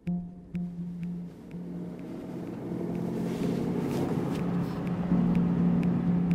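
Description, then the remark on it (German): A car engine hums steadily and builds slightly as it pulls away from the yard of a road maintenance depot in Sinzig at 9:30 a.m., heading to a construction site at the Altenahr tunnel in the Ahr valley; a continuous low rumble with faint rattles and clicks, without any talking. “Um 9.30 Uhr steuert Stefan Schmidt seinen Wagen vom Hof der Straßenbaumeisterei zum Einsatz im Ahrtal”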